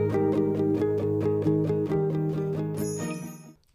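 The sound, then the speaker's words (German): A short instrumental intro jingle, shorter than usual, with bright, sustained tones over a steady pulsing beat, played clearly for a few seconds before it quickly fades out. “Das Intro war kürzer als sonst und damit herzlich willkommen hier zu einer Kurzfolge von Mein Blaulicht und ich.”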